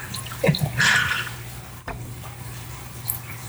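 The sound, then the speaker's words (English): Beer, a Berliner Rausch saison from a can, splashing and glugging into a glass in a short burst lasting about a second before trailing off to a quiet hum, with a faint clink near the end. “That's all you're gonna pour.”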